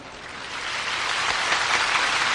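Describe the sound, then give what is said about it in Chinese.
An audience claps steadily, a dense crackle of many hands with no voices, swelling slightly louder toward the end. “好，从诸位的鼓掌之下，就知道同一师傅的看法。”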